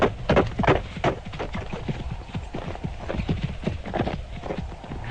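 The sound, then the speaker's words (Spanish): Horse hooves clip-clop steadily as a rider crosses a short causeway leading to a house, a quick, rhythmic stream of sharp hoofbeats on a hard surface that holds an even pace for the whole stretch. “Mientras observaba tales cosas, cabalgué por una corta calzada que me condujo a la casa.”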